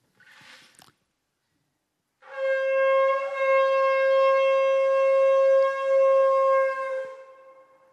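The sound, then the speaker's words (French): A horn, called a shofar, blown loudly in one long, steady blast lasting about five seconds, a bright, buzzy tone holding a single pitch before tapering off. A brief soft rustle comes first, then silence. “Une corne, hein.”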